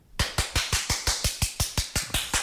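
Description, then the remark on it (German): Applause: a quick, steady run of about a dozen sharp, crisp claps in an even rhythm, starting abruptly and played alone with no talking. “Das ist wahrscheinlich so wie der Applaus, den die Leute während Corona gekriegt haben, dafür, dass sie in der Pflege arbeiten.”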